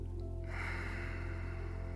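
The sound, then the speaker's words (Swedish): A long, steady inhalation drawn in through the nose during a yoga breathing exercise, fairly soft, with a faint airy hiss over a low constant hum. No talking. “Andas in Känn hur magen vidgas, bröstkorgen följer efter.”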